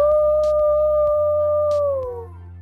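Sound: wolf howling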